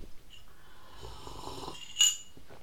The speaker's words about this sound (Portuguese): pois havia outros sons que não são a minha voz, como por exemplo eu estar a beber aqui um leite com chocolate, um leite com cacau, magro. Uh, mas é bom, por acaso até não está mal. Quente.